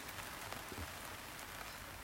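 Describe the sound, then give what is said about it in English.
Steady rain patters down on leaves and ground outdoors, a dense, even hiss with occasional drips standing out, continuous and fairly quiet with no voices. “See, I want this to feel like the garden getting rained on.”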